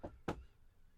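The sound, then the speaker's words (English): Two firm knocks on a door, spaced a moment apart, then quiet with no voices. “going to be a little knock on your door.”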